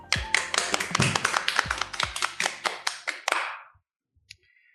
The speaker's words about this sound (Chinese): Hello，大家好，这里是挣扎的录一期，我们开始录第三期了，来，大家鼓掌。